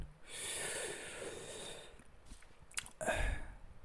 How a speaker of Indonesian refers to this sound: Bentar nih, saya nyeruput kopi dulu ya. Kopi cerugan.